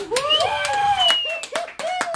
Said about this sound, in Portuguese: Vamos receber, por favor, quero pedir para a equipe aplaudir.